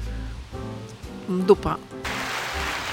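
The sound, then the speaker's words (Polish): A voice says a short word, then a dense, steady wash of applause-like sound sets in abruptly and continues to the end, resembling heavy rain. “To brzmi jak szum deszczu albo oklaski. Oklaski.”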